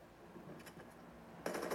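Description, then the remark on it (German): Video game automatic gunfire sprays in rapid bursts, a short muffled stretch early on, then a louder, sharper volley of fast shots near the end, with no one talking. “Wenn er genug Spray-Schuss dabei hat.”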